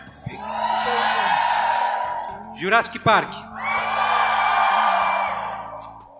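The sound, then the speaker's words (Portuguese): An audience cheers loudly for several seconds to settle a tied 2-2 vote, breaks for a brief spoken phrase, then erupts again in a long sustained roar of shouts and whoops. “Então, a plateia, de novo, nossa torcida vai resolver.”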